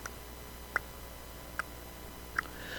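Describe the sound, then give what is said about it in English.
A metronome ticks steadily during piano practice, three crisp clicks spaced evenly about eight-tenths of a second apart, heard alone against a quiet, faintly hissy background. “Um, so every day, you go back to the piano for half an hour, you put on the metronome,”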